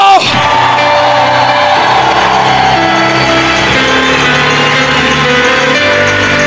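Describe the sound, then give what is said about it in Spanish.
A large church audience erupts in loud, sustained shouting, cheering and applause of victory, many voices whooping and yelling together in jubilation, continuously from start to finish. “Un aplauso de victoria y grito de júbilo.”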